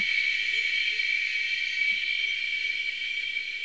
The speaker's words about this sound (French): Alors c'est un chœur euh, de sept espèces de cigales enregistrées au Mexique, dans l'état de Veracruz.